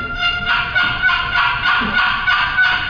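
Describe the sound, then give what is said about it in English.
A box call working out a steady run of raspy, high turkey yelps, the notes coming quickly one after another, loud, with no voices. “On a box call, I'm going to show you a couple little tricks on a box and a slate here in a minute.”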